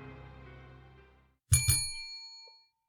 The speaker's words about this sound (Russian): Из морга раздается телефонный звонок.